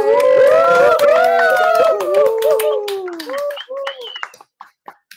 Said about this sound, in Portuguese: Vamos saudar com a salva de palmas mais que merecida e infusiva